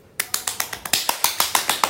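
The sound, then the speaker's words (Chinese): Two people clap their hands, a quick run of about a dozen sharp, crisp claps at a fairly steady pace, moderately loud, with no talking. “鼓掌的两个人分别是，自我介绍一下吧，我忘了你叫什么了。”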